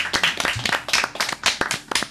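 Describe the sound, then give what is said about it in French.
An audience at a slam poetry event claps for the slam host, many hands striking in a dense, irregular patter of sharp, bright slaps that holds at a moderate level throughout without a clear rhythm. “On peut l'applaudir si vous voulez.”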